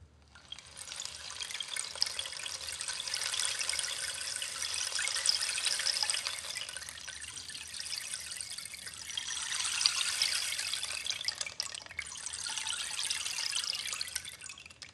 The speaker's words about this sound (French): Le bâton de pluie